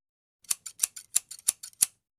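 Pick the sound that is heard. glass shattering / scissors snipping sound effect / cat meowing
scissors snipping sound effect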